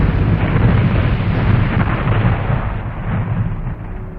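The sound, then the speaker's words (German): A huge supernova explosion of a collapsing star at the end of its life roars as a deep, dense rumble with a crackling, churning texture. It stays loud and steady for about four seconds, fading only slightly, with no voices. “Das geht nur durch eine riesige Explosion.”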